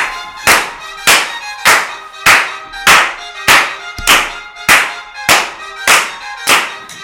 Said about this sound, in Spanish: Hagamos palmas.